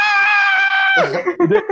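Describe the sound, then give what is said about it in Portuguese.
A voice imitates the thin, high-pitched shriek of a fan in the crowd at an athletics 100-metre race, holding one piercing steady note for about a second before it drops off into a few short vocal sounds. “Tem, tem, tem um, um grito que se sobressai, que é um grito muito fino, que é ah!”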